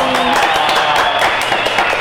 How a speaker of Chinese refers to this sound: 哇，掌声鼓励鼓励